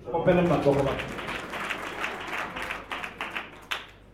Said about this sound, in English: Clap your hands for him.